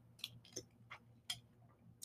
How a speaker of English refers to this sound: Okay, I'm gonna take a sip of my coffee. That always seems to just, you know, get me going.